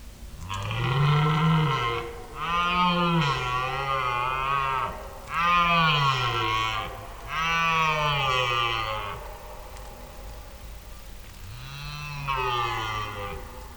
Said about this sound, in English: we actually, in the first night, we did record So Red Deer calling, right? Yeah, exactly. Yes. Yeah. We'll put it again later and you can, or maybe now. Maybe now. Let's put yeah. it now. And uh, yeah, take a listen.